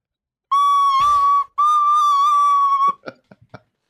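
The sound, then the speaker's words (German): A brief melody on a flute, a summer pop hit played again, clear: two long sustained notes with a slight break between them, then a few quick, short notes trailing off. No one speaks. “spielt das jetzt nochmal auf seinem Instrument.”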